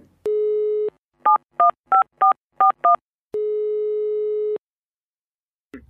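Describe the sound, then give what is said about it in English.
A steady dial tone hums, then six quick touch-tone beeps are punched in rhythmically, followed by another long steady tone. The sounds are clear, with no talking. “so back to the phone call back to lindsey and the psg question”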